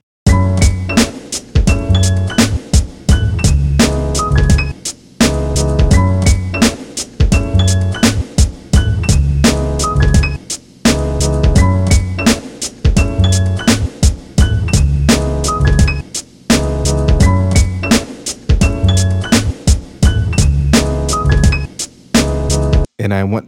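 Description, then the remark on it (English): A full hip-hop beat plays on its own: a punchy, deeper kick drum and a faintly echoing snare with slight reverb, with crisp hi-hats in an intermittent pattern over a looping melodic sample. It repeats steadily in short phrases with brief dropouts. “With that, I think we have the beat for this song.”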